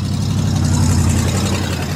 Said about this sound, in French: Il faisait toujours nuit, une voiture avançait vers lui.